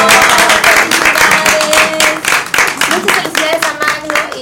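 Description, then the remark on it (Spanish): Steady, loud applause from an audience, a dense wash of many hands clapping continuously for several seconds, with a few voices and faint whistles or cheers mixed in. “Bueno, un fuerte aplauso para el. ¡Bravo!”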